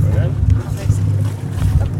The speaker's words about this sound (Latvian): Kas šis ir? Tas ir... Uh, Šitas ir ostas kuteris.